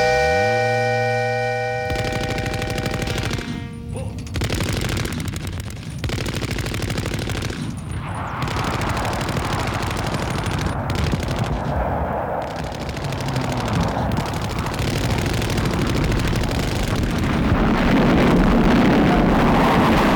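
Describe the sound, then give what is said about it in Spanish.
Loud, dense bursts of gunfire and explosions rumble on continuously as the ending of a song, with rapid crackling shots layered over booming blasts and roaring noise, following a final sustained musical chord at the start. “Y ese final de explosiones y trágico se contrapone con la diversión de la canción anterior, ¿no es cierto?”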